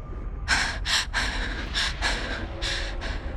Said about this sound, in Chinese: 我不停的喘息